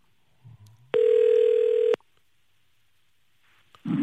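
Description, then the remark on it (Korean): A loud, steady telephone tone holds for about one second, preceded by a faint low blip and followed by quiet, then a sudden burst of noise right at the end, as a broadcast phones a reporter stationed at Gimpo IC. “자, 아, 지금 저 김포 IC에 나가 있는, 김포 IC 나가 있는 9966님 전화 걸어보도록 하겠습니다.”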